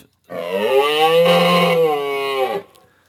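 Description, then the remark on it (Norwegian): A person imitating a moose, as the answer in an animal-sound quiz, lets out a single long, loud, lowing call, a drawn-out nasal bellow lasting over two seconds with a steady pitch that drops slightly at the end, with no other talk. “denne, lyden hadde du øvd på, …”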